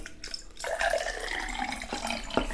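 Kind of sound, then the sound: household object, water running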